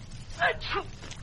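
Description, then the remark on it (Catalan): A narrator acts out a loud sneeze in a story, as if caused by smoke from boiling oil tickling the nose: a quick breathy intake followed by a sharp, voiced burst, two short pulses lasting under a second over a faint background hum. “Tantes pessigolles que acabà per fer un fort esternut.”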